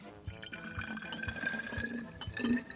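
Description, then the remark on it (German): Water pours steadily into a small bottle for a few seconds, filling it about halfway, a continuous gurgling splash with a faint ringing tone, without any talking. “Als allererstes kommt in unsere kleine Flasche hier vielleicht mal so eine gewisse Menge Wasser.”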